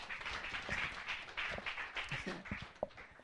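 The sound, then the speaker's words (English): An audience claps together in a dense, steady burst of applause, many overlapping hand claps forming a continuous crackling wash with a few sharper individual claps standing out. “Clap for them, praise God.”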